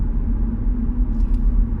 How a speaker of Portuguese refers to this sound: já vou chegar atrasado ao trabalho, é sempre a mesma merda, este trânsito.